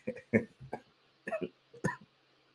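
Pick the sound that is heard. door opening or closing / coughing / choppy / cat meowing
coughing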